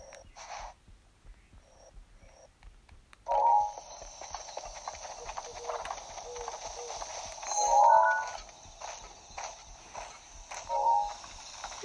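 Horse hooves clip-clop in a steady walking rhythm, moderately loud, soon joined by a continuous rushing background noise that swells a few times. No one speaks.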